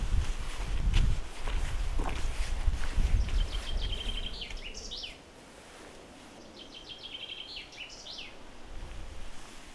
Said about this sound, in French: Alors, on reste en contact, et là, j'avance contre le vent.